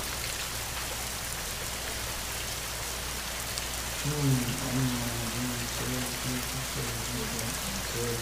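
Steady, even hiss of rain falling without a break, with a low, muffled voice murmuring faintly beneath the downpour during the second half.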